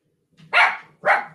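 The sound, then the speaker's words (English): Two sharp dog barks in quick succession, loud, with a short gap between them and no other sounds around. “I'm not sure if that's agreement or disagreement, but the dog”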